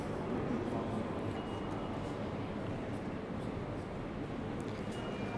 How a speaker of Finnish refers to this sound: Ja nyt me ollaan täällä rautatieaseman päähallissa. Ja nyt on vähän laantunut jo tämä aamun työmatkaliikenne. Täältähän lähtee monta junaa työmatkalaisia Helsinkiin päivittäin aamulla.